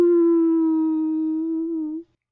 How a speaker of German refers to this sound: Es klang wirklich unheimlich. Aber das Geräusch kannte ich schon und es machte mir keine Angst. Das war ein Schakal. Wahrscheinlich suchte er im Lager etwas zu fressen, und nun jaulte er enttäuscht